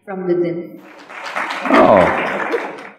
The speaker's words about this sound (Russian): Так много разбитых сердец, которые хлопают в ладоши.